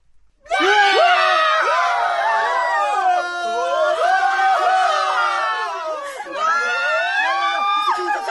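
A crowd of riders screams continuously on a swinging pirate ship (Viking) ride at an amusement park, many overlapping high-pitched shrieks rising and falling in waves, loud, with a brief dip before another surge.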